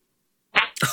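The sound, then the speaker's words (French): After a short silence, a voice lets out a brief, shrill squeal imitating a small high-pitched scream, followed by a breathy, noisy burst. Fairly loud, lasting under half a second. “Quand qu'elle voit sa mère, tu sais, elle se met à crier, un petit cri bien aigu.”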